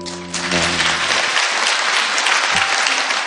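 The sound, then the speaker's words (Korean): Sustained audience applause, a dense crackling wash of many hands clapping at steady loudness for the full few seconds, with a brief low tonal hum fading out at the start. “지금 이 대목에서 이제 박수가 나오는 건 그런 친구 있어서 좋겠다.”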